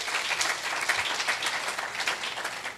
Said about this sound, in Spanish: ¿Cuánto dan un aplauso al Señor una vez más? Aleluya.